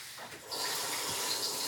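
Tap water runs steadily into a sink as peeled, cut potatoes are rinsed, a broad hiss that swells after a brief softer start and continues without pause, with no one speaking.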